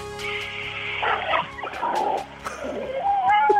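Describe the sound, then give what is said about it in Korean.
A voice imitates the sounds of a large supermarket's underground parking garage: a steady stream of droning, buzzing and squealing vocal tones, fairly loud, ending with a high, rising squeal-like whine. “대형마트 지하주차장 소리.”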